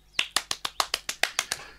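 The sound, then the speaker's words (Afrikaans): A boy excitedly claps his hands quickly and evenly after opening a gift of tin soldiers, about ten sharp, bright claps in under two seconds, with no voices. “Bliksoldaatjies, roep die seun opgewonde en hy klap sy hande.”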